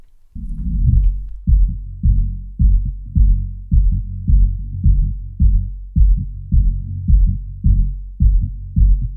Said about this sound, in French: c'est le bruit que t'entends quand tu es dans le ventre de ta mère avant de naître